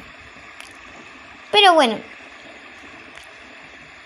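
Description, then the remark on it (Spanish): Steady rain from a storm hisses continuously throughout, an even wash of falling water, while a voice briefly speaks a couple of words partway through. “El día de hoy está lloviendo.”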